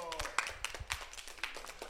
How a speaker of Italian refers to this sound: Grande applausometro!